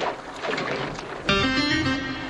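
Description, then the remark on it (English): A boat hit by a big wave tips over and capsizes, throwing a girl into the water, with a rush of loud, churning splashes, then a sudden thump gives way to a steady, ringing hum that carries on to the end. “The boat just tipped over. It's capsized.”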